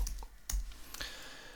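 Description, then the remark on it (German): A few sharp, irregular keystroke clicks on a computer keyboard as a web search is typed, fairly quiet, with short gaps between the taps and no talking. “Ja, so, ich, ich zücke meine Tastatur.”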